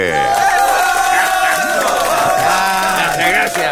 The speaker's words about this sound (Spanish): Recibamos con un fuerte aplauso en el Teatro Chacabuco al dúo cómico No y Caliche.